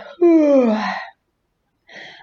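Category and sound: human body sound, yawning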